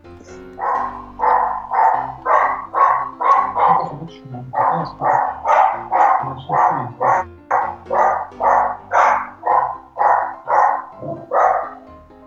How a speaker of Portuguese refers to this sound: A cachorra começou a latir de novo. É! Oi? Peraí, latiu. Latido, latido, latido.